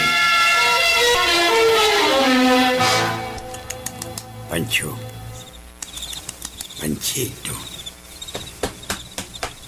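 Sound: bird call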